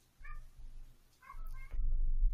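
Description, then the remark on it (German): A male cat having some fits meows twice in short, fairly loud, nasal cries about a second apart, with a low rumbling background noise that grows heavier toward the end. “Der Kater äh, hat gerade irgendwie so ein paar Anfälle.”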